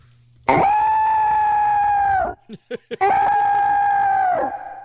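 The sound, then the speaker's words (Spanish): A person imitates an elephant's trumpet with two long, loud, brassy blasts held for about two seconds each, a few short vocal bursts squeezed between them. “¿Y cómo le hace un elefante?”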